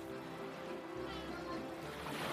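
A steady, hissing wash of seaside waves and sea breeze on the coast of Normandy, with a soft low rumble underneath. The sound stays quiet and even throughout, with no distinct crashes.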